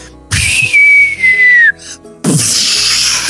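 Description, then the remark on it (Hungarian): A person mimics a whistling firework with their voice: a loud, sustained high whistle that slowly drops in pitch, a brief pause, then a burst of breathy hissing noise like an explosion. “A tűzijáték az így néz ki, hogy”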